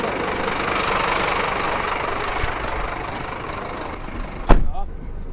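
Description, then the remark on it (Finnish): A steady low rumble of a car engine runs throughout, heard from inside the moving vehicle, ending with a brief sharp knock or clunk near the end. “Nyt nousi tähän Riku Räsäsen auton kyytiin”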